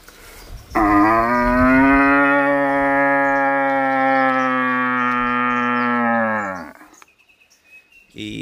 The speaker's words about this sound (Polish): Także najskuteczniejszym, takim najbezpieczniejszym odgłosem, który nie płoszy innych byków jest odgłos młodego byka szukającego łani.